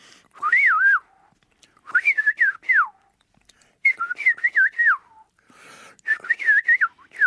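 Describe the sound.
A person whistles an imitation of a golden oriole's fluting, warbling call four times in a row, each short phrase rising and falling, clear with brief pauses between; no talking.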